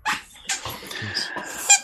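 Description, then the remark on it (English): Three pet dogs play with squeaky toys, producing a quick run of shrill, rubbery squeaks with snuffling and scuffling between them, ending in one sharper squeak. “I have three pet dogs that just squeaky toys in here with squeaky.”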